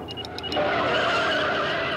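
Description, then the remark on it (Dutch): A DeLorean, the car from Back to the Future, accelerates hard with a brief, high squeal of skidding tyres at the start, giving way to a loud, sustained engine roar. “Vernoemd naar de auto, de DeLorean, die bekend werd door Back to the Future.”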